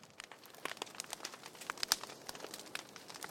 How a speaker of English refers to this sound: We stood around a fire, listening to the crackling wood, drinking coffee at his parents' hogan, which is like their house or cabin, on the land that his grandparents first purchased years ago.